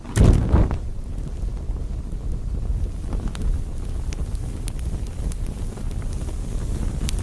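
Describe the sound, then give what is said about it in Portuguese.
Strong wind roars and buffets steadily, a heavy low rumble with a loud gust bursting in at the start, then a continuous whooshing blow with occasional sharp crackles and no voices. “Para se protegerem do enorme calor, os pássaros, desesperados, começaram a se abanar com suas grandes asas, fazendo uma ventania tremenda.”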